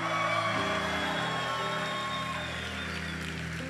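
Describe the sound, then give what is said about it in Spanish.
An audience shouts and cheers in a sustained, roaring swell of praise, with scattered whoops rising over a steady sustained keyboard tone underneath. “Alguien va a tener que dar un grito de gloria aquí.”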